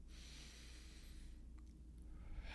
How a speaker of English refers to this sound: And we're going to get nice comfortable uh, position where we're taking a couple of nice deep breaths, breathing in through the nose